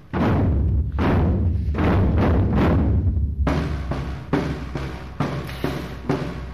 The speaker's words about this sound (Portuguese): Um projeto que leva assim o bombo às escolas, este som que acabamos de ouvir, uma parceria com a Câmara que já proporcionou a mais de 800 alunos o contacto com a música e também com os instrumentos.